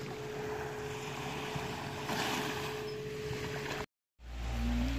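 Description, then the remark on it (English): Steady outdoor wind and washing water on a beach on the south side of an island, facing the water toward Lombok, fill the scene, with a low droning hum underneath. It breaks off briefly near the end, then returns with a deeper rumble. “We're just sat on the beach, and this place is utter paradise.”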